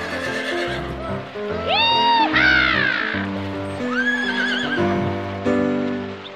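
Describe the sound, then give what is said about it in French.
A horse lets out a loud, shrill whinny that rises and quavers, followed moments later by a second, shorter neigh, set against a low, steady musical backdrop. “Elle chasse, elle monte à cheval, elle apprend à faire claquer son lasso.”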